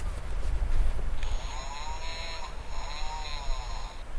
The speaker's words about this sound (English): It's the puffin. This is my daughter's puffin. It makes sense. I'm sorry. That's supposed to be the call of a puffin.